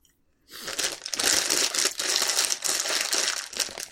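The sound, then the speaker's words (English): Loud crunching of dry cereal being chewed, a dense crackly stream that starts after a brief pause and continues steadily without any talking. “No, no. Cereal.”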